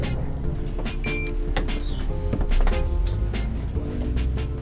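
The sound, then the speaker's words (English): A bus rumbles to a halt with a low engine drone and squealing brakes, then pneumatic doors hiss and slide open with clunking thuds as passengers get off, on a rainy day. “We just got off the bus and we're trying to figure out where we need to go.”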